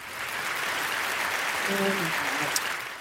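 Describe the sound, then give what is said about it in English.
Steady applause from a crowd fills the whole clip, a dense hiss-like clatter of many hands clapping at once, with a brief faint voice tone murmuring partway through. “Was that rain? We, we, it's it's clapping.”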